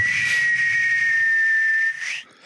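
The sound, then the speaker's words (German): Someone imitates a whistling firework rocket with their mouth, practising New Year's Eve firework sounds: one loud, steady, breathy high whistle held for about two seconds before cutting off abruptly. No talking. “Du machst den besten Heuler.”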